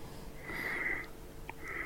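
Raspy, wheezy breathing comes through a thin telephone line, with a sustained whistling hiss and a short sniff-like puff near the end, fairly quiet over a noisy background.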